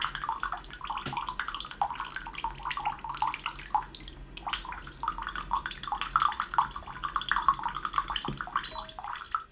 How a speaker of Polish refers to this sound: Więc naciskam sobie przycisk na ekraniku po lewej górnej stronie, w lewym górnym rogu ekraniku wydało dźwięk. Naciskam przycisk do nalania wody. I już leci wrząca woda.